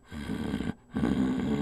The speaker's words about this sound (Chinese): 有的狗狗警戒心比较重，当它吃饭的时候，有别人靠近，就以为对方是要来抢它的食物，因此会发出警告性的低吼声，像是这样